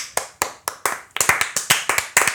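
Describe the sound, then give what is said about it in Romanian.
Steady hand clapping, about a dozen sharp claps in a brisk rhythm that picks up slightly and grows fuller partway through, like a small group applauding. No one speaks. “Aplauze.”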